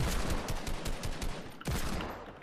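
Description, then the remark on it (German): Rapid bursts of video game gunfire crackle continuously, dense and loud with overlapping shots, a brief pause near the end before the firing resumes at full intensity. “Schieß drauf, schieß drauf, die sind beide gefleckt.”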